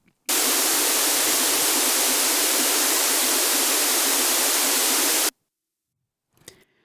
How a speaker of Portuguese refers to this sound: Quando o sinal está fora de fase, se você fechar o olho de novo, você vai perceber que é como se o ruído tivesse saído do lugar